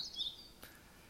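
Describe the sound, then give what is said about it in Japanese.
A Japanese tit (shijūkara) gives a brief, high-pitched chirping phrase at the start, faint, followed by quiet with a soft click and no one speaking. “ということでした。はい。これが40からですね。40から。”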